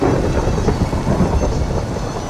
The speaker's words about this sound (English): I go over here and it starts raining horribly. Uh, oh yeah. That's a tornado. That's a torn. That's a massive tornado. The farther the farther down I go, the harder it rains.